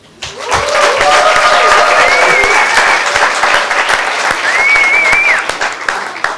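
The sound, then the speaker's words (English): A crowd at a Theology on Tap gathering applauds the attendees from Hungary with steady, dense clapping for several seconds, joined by a few cheers and whoops rising over the clatter before it tapers off at the end. “There are people from Hungary, a little applause.”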